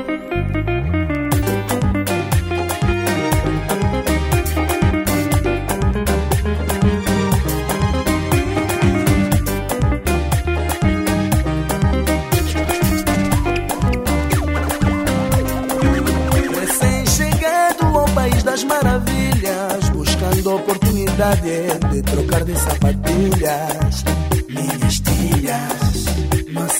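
An Angolan song by a male singer plays at full, steady volume, with a dense band arrangement, driving percussion and a thick bass line throughout, without any talking over it.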